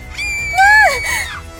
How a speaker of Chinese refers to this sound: 良久，一个女生捂着下巴尖叫起来。